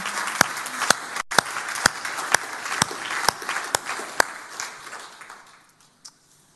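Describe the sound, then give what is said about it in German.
An audience applauds, a dense wash of many hands clapping with a steady rhythm of sharper claps, then the applause thins and fades out over the last couple of seconds. “Ja, lass uns mal einen fetten Applaus geben.”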